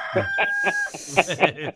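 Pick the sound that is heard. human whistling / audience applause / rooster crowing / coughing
rooster crowing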